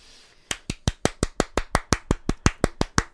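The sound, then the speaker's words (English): A soft, polite golf clap: a steady run of about fifteen light, crisp hand claps at a quick even pace, fairly quiet, with no voices over them. “Little golf clap, little golf clap.”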